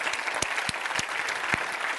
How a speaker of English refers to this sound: Can somebody clap your hands and say amen? Will you do?